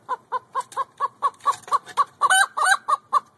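A chicken clucks in a steady run of about a dozen short clucks, with two louder, drawn-out squawking clucks near the end; no one speaks.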